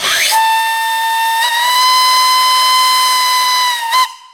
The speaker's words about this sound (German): Das Pfeifen der Lokomotive kündigte den Start der Reise an.